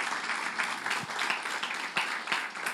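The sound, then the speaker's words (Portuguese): A crowd at a church applauds a worship group steadily, many hands clapping in a dense, continuous patter with a few sharper individual claps standing out, sustained at a moderate level with no voices. “Vamos aplaudir ah, pela vida deles.”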